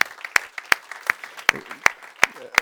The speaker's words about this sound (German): Und äh, ja, lass uns diese Leute begrüßen heute Morgen mit einem kraftvollen Applaus